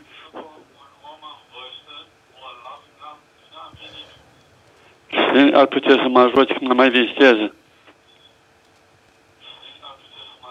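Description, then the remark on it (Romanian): An elderly, ill caller speaks Romanian over a thin, band-limited phone line while a louder burst of sound from his television comes through mid-clip, echoing back through the call before fading to quieter talk. “Uh, să dați un pic mai încet televizorul sau ce aveți că se aude cu ecou, ca să, să auziți doar în telefon, vă rog, ca să putem discuta.”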